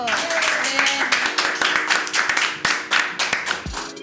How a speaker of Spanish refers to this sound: Eh, quisiera agregar que esta es una programación en vivo y con público. Esta sería la segunda vez que se hace con público. Por favor, más aplausos.